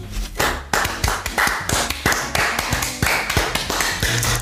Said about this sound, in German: Können wir mal klatschen.